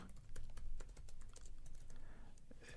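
Rapid typing on a computer keyboard while writing an email, a steady stream of crisp key clicks with uneven rhythm, no voices.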